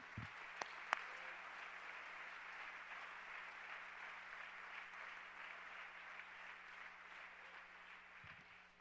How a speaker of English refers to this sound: Somebody clap your hands this morning.